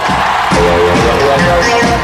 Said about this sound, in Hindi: अब जोरदार तालियों से स्वागत कीजिए